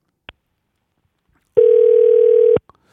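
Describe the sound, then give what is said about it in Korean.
A phone line's ringing tone as a call is placed to a listener during a live nationwide radio broadcast: a faint click, then one steady, fairly loud electronic beep lasting about a second, with no voices. “예, 전화 한번, 전화 한번 연결해 주세요.”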